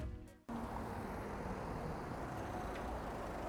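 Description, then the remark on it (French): A brief low, humming engine tone cuts abruptly into a steady, loud rush of vehicle and road noise as a car pulls up at a toll booth, with no one speaking. “Une voiture de plus arrive au péage.”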